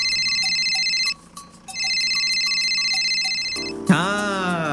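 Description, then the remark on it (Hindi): Ritik's mobile phone rings with a bright, repeating electronic melody, loud. It pauses briefly, then resumes before cutting into a sweeping, warbling tone at the end. “ऋतिक बोला रुको मैं गाता हूँ उत्ते में ऋतिक का फोन बज गया”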